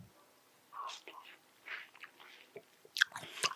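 Wet crunching as someone sits biting into and chewing watermelon, with a few irregular juicy bites and squelches, fairly quiet and with no talking.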